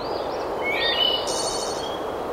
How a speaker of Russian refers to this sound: А так будут петь птицы, перелетающие с ветки на ветку в этом лесу.